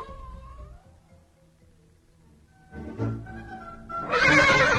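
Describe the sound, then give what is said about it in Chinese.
Two horses neighing as they greet each other: a brief wavering whinny opens, then after a quiet pause louder, rougher neighs build, ending in a harsh, bright burst. No one speaks. “那两匹马是不是也在打招呼啊？”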